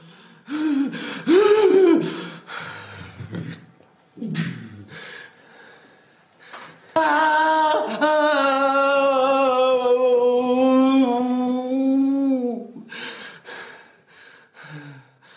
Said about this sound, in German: Laut Ächzen ist definiert durch unverständliche und unbeabsichtigte Geräusche, die lauter als üblich sind und oft plötzlich beginnen und enden.